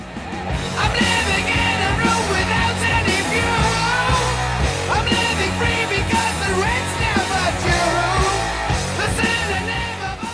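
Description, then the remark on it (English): Loud, dense heavy rock with a crushing swing plays throughout, with distorted guitars and pounding drums, as a raw shouted yell of "attack" cuts through the wall of sound a few seconds in. “crushing swing, just a few seconds in, and you've heard someone yell attack, and the band does just that.”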